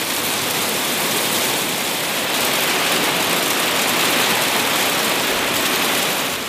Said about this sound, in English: So I'm on Anchor Island in Fiordland and it is hailing like nothing else, but luckily we hadn't left the hut yet.